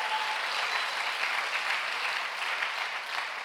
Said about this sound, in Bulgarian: О, ръкопляскаш, като че не вярваш това, което е казваш.